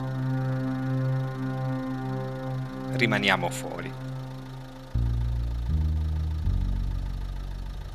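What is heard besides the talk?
car engine running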